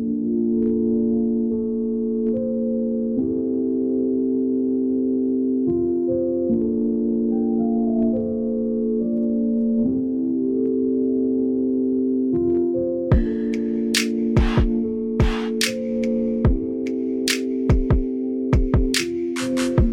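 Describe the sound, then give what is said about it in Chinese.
Loop-based electronic music composed by a student on an iPad by dragging in loop segments and mixing them across five tracks: sustained synth chords repeat in a steady pattern, changing every couple of seconds, before sharp percussive hits join in for the final stretch. No one speaks. “其实呢，他也是直接拉 loop 的循环乐段，然后拉进来做 mix。”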